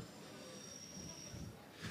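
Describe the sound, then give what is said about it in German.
An S-Bahn commuter train rumbles past with a sustained high-pitched squeal of its wheels, steady, with a low rolling rumble underneath and a brief noisy swell near the end. “Ja, ist halt irgendwie schwierig, sag ich mal, und genau wie diese S-Bahn, aber äh, nein, was willst du machen?”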